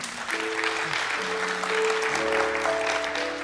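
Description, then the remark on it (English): An audience claps steadily for a few seconds, starting too early, a dense, even patter of applause, with faint sustained tones humming underneath. “I told you to lead the claps, but you went too early.”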